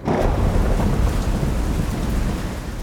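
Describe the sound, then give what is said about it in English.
Heavy rain pours down steadily at night, a dense, continuous hiss with a deep low rumble underneath, loud throughout with no voices. “It was raining that night, and the river threatened to overrun its banks.”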